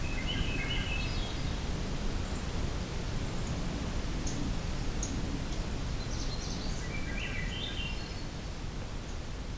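A magnolia warbler sings two short, sweet, high-pitched phrases, one at the start and one near the end, over a steady loud hiss of wind-like noise, along a trail in a park.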